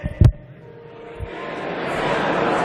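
A low, indistinct murmur of a studio audience saying phrases without shouting rises and thickens in the background, preceded by a brief thump near the start, with no clear words standing out.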